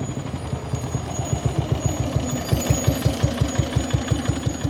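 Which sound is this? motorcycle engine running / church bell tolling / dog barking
motorcycle engine running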